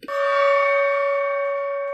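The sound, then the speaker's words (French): A single gong strike rings out with a sharp attack, then a sustained metallic shimmer of steady overtones that lingers loudly and evenly without fading much. “Le juge se leva et quitta rapidement la salle du tribunal, tandis que son assistant, faisait à nouveau sonner le gong.”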